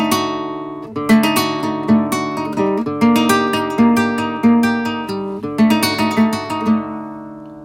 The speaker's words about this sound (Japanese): あななんていうか怪しい音ねでこれがね多分ね弦2度っての関係音程が、フラットナインでそれをギターで表現するとこういう音かなと思うんですよね